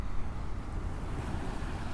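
A steady, rumbling wash of ocean waves at the shore in the early morning, around 5:30, continuous, with a low, wind-like roar underneath and no voices.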